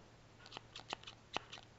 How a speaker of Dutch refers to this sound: Ja, hè? ja de, ik, staat ondertussen even op om de draadknippertje te pakken. Ja, en ik heb van die sokken, dus ik probeer heel zacht te lopen. Ik wil even het geluidje laten oh. horen.